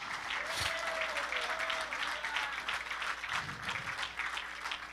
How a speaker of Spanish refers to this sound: Ay, ay, ay, hermano. ¡Uh! dale ese aplauso. Aleluya.